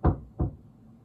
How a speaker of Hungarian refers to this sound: Milyen érdekes látni, nem, hogy itt volt ez a laudíciai gyülekezet, és Jézus nem volt bent náluk, hanem azt mondja, hogy kint vagyok és kopogtatok.